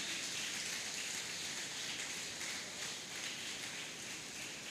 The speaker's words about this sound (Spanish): Denle un aplauso, Señor hermano, en esta hora. Aleluya.